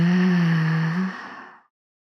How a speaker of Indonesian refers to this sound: Ambil nafas panjang dari hidung. Buang nafas dari mulutnya.